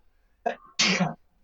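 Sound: sneeze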